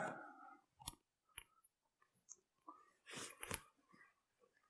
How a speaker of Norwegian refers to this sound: Legger det ned i jakka mi. Tar jeg av meg jak jakka mi